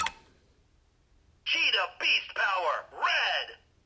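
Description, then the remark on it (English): After a soft click as a red key is inserted and a moment of quiet, a talking toy's tinny, compressed electronic voice blares out an announcement about the red key in four loud, choppy bursts through a small speaker. “So it talks about Cheetah Beast Power Red.”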